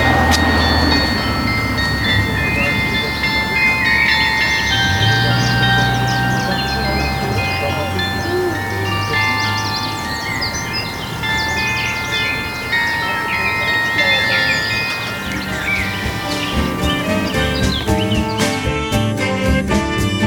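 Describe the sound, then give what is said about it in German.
A train rumbles steadily past at the railway station in Balduinstein, with a sustained metallic whine over the roar and a quickening clatter of wheels over rail joints toward the end. “Mittlerweile sind wir am Bahnhof in Balduinstein angekommen.”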